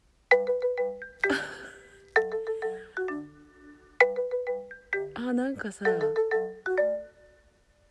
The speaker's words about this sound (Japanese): スマホのなんかあのかかってきた時の音声っぽいっすよねなんか軽快でいいよこれいいあこれいいなこれめっちゃ好きです